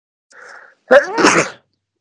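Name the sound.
sneeze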